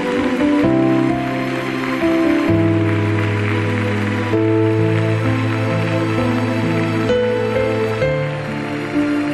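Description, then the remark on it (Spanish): A church audience applauds for the King in a steady, dense clatter of clapping that lasts throughout, layered over sustained keyboard chords that shift every couple of seconds; no one speaks. “Demos un aplauso al Rey.”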